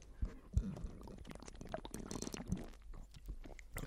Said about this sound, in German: Und dann würde ich sagen, bevor wir direkt damit einhergehend zum, und zu unserem Hauptthema äh, übergehen, würde ich doch sagen, dass wir uns einen, äh, einen wunderbaren Schluck von unserem Almas Malzbier gönnen. Mhm. Ja. Prost.